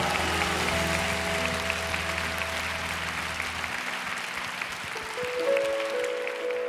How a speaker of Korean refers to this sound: 친구 되시며 우리의 모든 것 되신 주님 앞에 우리가 드릴 수 있는 최고의 감사의 박수 올려드릴까요? 할렐루야!